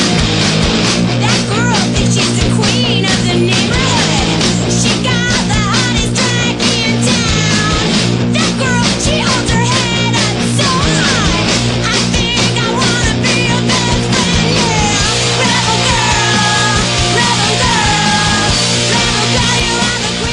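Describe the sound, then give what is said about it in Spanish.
A loud riot grrrl punk rock song, an anthem of the movement, plays continuously, with dense distorted guitars, pounding drums and a raw singing voice cutting through the mix. “…, …, es como uno de los himnos de, este movimiento.”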